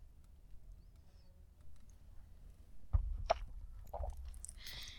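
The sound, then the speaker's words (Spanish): Quiet sipping of coffee from a cup: a soft knock near the middle, a few small wet mouth clicks, then a short airy slurp at the end, with no talking. “Pausa para trago de café.”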